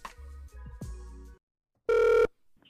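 A telephone rings over the line on the Rap Phone of Breaking and Entering Radio: a warbling electronic burst with low buzzing pulses, a brief pause, then one loud, steady ring tone cut off sharply. No one speaks.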